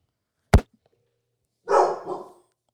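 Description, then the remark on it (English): A blonde dog named Rocky barks twice: one short, sharp bark, then after a pause a longer, rougher bark that trails off. No one speaks. “That's right, blonde ass dog.”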